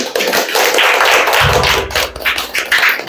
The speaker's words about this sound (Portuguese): Aplauda o nosso Senhor.